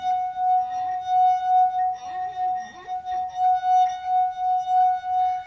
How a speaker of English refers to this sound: Okay, okay so, so this is one of those well known party tricks where you play the wine glass